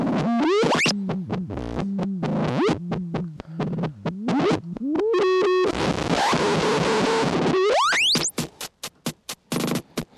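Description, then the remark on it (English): Gritty, resonant electronic tones swoop up and down as an effects pedal's resonance and frequency are twisted, ending in a rising sweep and a burst of sharp, stuttering clicks. “But let's mess with this resonator or the resonance and frequency knobs.”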